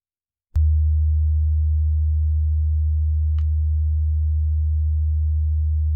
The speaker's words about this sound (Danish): Er det også den lyd, du kan høre? Ja, jeg vil sige, den er måske ikke helt så høj, som den er her, men, øh, men det, er, det er noget i den stil. Det er sådan en dyb resonanslyd som den her.